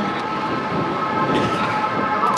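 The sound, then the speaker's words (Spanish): Ambulance sirens wail steadily in the background, their tones sustained over a constant rumble of traffic and street noise, with no one speaking. “Escuchad las ambulancias de fondo.”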